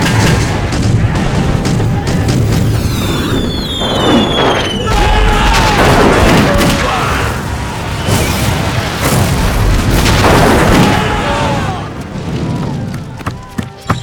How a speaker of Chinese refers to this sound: 禀将军，打狗山已在射程之内。 很好，众将士听令，全面发炮！